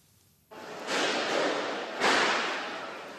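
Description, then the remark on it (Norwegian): Loud gunshots crack out twice inside the Westgate shopping centre in Nairobi during the terror attack as panicked people flee, over a harsh, continuous noisy wash, each blast fading slowly into the rush; no distinct voices stand out amid the din. “Panikkslagne mennesker løper vekk fra skuddene inne på Westgate.”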